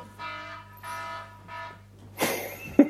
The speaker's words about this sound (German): Sorry. Alarm, brennt's schon? Nee, das war der Wecker von gestern.